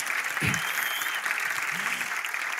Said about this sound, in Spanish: Dale un fuerte aplauso al rey, por favor. Pero dale un, aplauso fuerte, fuerte, fuerte, fuerte, fuerte.